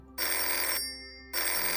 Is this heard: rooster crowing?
no